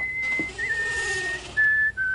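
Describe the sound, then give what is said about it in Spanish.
A soldier whistles a short tune while entering a palace with a sack on his shoulder, a few sustained notes shifting in pitch and ending on a brief louder phrase, heard clearly and alone with no talking. “El soldado entró en aquel palacio con su silbido y el saco al hombro.”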